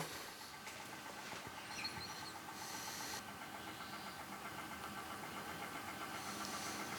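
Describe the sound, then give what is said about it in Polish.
A tape deck winding through the cassette to the next song, a steady mechanical whir with a faint humming tone and a few brief brighter rattles, continuous with no talking. “No to poczekamy aż przywinie do kolejnej piosenki.”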